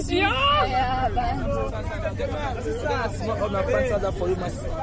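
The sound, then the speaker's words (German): A busy street market crowd, many voices chattering and calling out at once in a steady hubbub, over a low engine rumble, heard from a car driving along a road through the middle of a market selling car tyres, fruit and second-hand clothing from Europe. “Wir fahren mit dem Auto auf einer Straße, die mitten durch einen Markt führt.”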